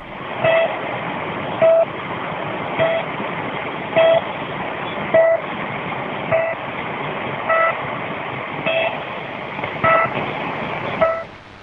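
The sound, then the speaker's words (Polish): A shortwave numbers station sends short, steady electronic beeps at 63 per minute, carrying no time or date data, cutting through a constant hiss of radio static with no voices. “ona żadnych danych o godzinie ani dacie i dodatkowo nadaje 63 dźwięki na minutę.”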